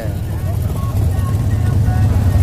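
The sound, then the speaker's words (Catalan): A Harley-Davidson motorcycle ridden by another companion rolls in with a deep, throbbing engine rumble, loud, swelling slightly as it arrives, while faint voices murmur in the background. “Estem aquí però en plena conversa perquè acaba d'arribar un altre company, un altre Harley.”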